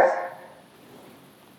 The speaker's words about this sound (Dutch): Ik had hem even op stop gezet, want Loet stond echt in mijn oren te blaffen. Je moet weten, hier op dit terrein zitten vossen en dassen. Dus hij is getriggerd bij elk dier wat hij hoort, bij elk geluid wat hij hoort.